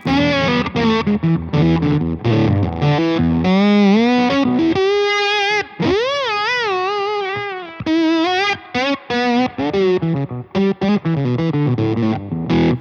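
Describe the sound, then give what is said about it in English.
Electric guitar through a fuzz pedal made by Dan, with the pedal's gain rolled off, plays a loud, gritty riff of quick choppy notes, then holds a sustained wavering note before returning to fast stabbed phrases; no one talks. “Uh, but this one, even with the gain rolled off, it's still just dirty.”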